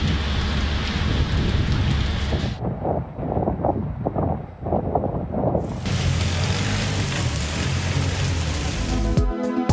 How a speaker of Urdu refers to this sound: اور بادل آئے بجلی کڑکی مینا برسی اسلام آباد اور لاہور میں بارش کی بھرپور اننگز گرمی پویلین لوٹ گئی